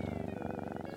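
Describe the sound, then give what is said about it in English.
A cat purrs steadily on the small Hawaiian island of Lanai, a deep, continuous rumble with a fast rhythmic flutter that stays even throughout the brief moment, with no talking over it. “These cats on the small Hawaiian island of Lanai have got it made.”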